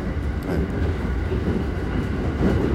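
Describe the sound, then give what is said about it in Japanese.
Steady low rumble of a limited express train heard from inside a carriage (car No. 1), with a continuous droning roar and faint rhythmic rattling of the wheels, loud and unbroken, no voices. “はい、あそっかそっか特急だからなかなか次の駅にねまで距離があるわけで、えー、車内アナウンスね期待してるんですけど”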